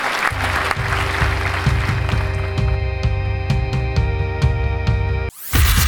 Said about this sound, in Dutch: Nou, hartelijk applaus. Dat hoort er dan wel bij.